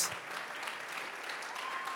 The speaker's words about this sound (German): Und ey, wie wäre es, wenn wir nochmal Jesus einen Applaus geben über, weil er ist, er ist gut, er ist, er ist König, er ist unser Gott.